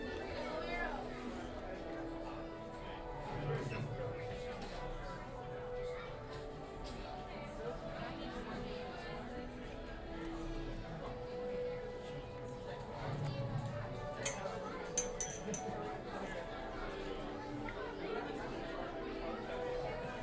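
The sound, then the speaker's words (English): Steady crowd chatter in the Soarin' ride area at Epcot theme park: many overlapping voices murmuring at a moderate level with no single speaker standing out, a continuous busy hum throughout. “enjoy the sounds of Soarin' here at Epcot.”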